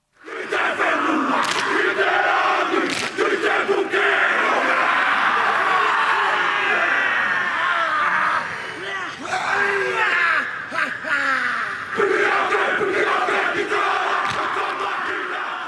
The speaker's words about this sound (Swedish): Dansen lever kvar, inte minst genom att rugbylandslaget genomför en sån dans inför varje match, som vi hör här.